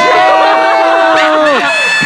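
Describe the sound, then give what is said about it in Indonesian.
A loud crowd cheers and whoops continuously for about two seconds, many voices overlapping with possible clapping underneath, energetic throughout. “Tepuk tangan lagi semuanya.”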